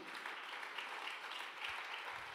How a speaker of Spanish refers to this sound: El otro aplauso fuerte.